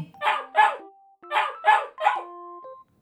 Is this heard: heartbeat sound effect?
no